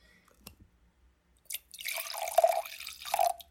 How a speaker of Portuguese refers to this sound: É porque eu tô tomando um vinho. um vinho seco. Aliás, eu tenho que encher meu, minha taça aqui, porque já esvaziou.